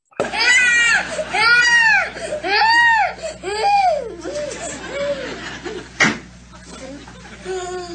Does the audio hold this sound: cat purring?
no